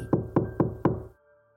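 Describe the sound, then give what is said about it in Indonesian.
Four sharp knocks on a hotel room door at 11 at night in a steady, even rhythm, clear, followed by a quiet low hum as the sound fades. “Pukul 11 malam Aku belum bisa tidur Tiba-tiba Ku dengar pintu kamar diketuk beberapa kali”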